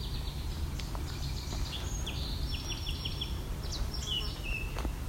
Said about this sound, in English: That's the Baltimore Oriole. It's kind of a singing whistle. their song or call. Also that that chatter there. Is one of their calls.